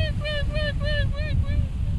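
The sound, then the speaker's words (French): A seagull gives a rapid series of about seven sharp, nasal calls in steady rhythm, clear, over a constant rumble of strong wind and water. “c'était une mouette.”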